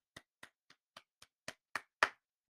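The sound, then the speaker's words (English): Slow, steady hand clapping: eight sharp, crisp claps at an even pace, growing a little louder toward the end, with the final clap the strongest. No voices accompany them. “give you a round of applause for you guys not doing your job correctly.”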